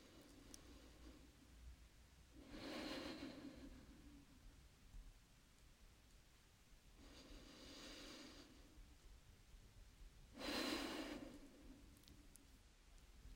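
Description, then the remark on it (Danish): Three slow, deep breaths, each a broad airy whoosh lasting about a second, spaced several seconds apart against a quiet, faintly hissy background. “Så vil jeg bede dig om lige at tage sådan et par dybe vejrtrækninger.”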